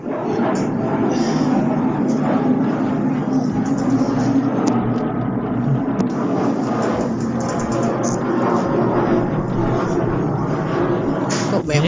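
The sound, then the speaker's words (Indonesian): An airplane passes overhead, a steady, low, broad rumble that holds for the whole stretch while people talk over it. “kita kayaknya kita banyak banget sponsor pesawat ya.”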